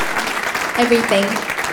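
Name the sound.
audience applause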